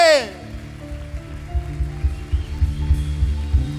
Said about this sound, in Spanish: Denle un aplauso a su rey. Déselo más fuerte.